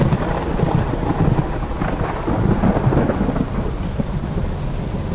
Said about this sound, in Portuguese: Muita chuva e trovoada. estava um clima estranho no Rio.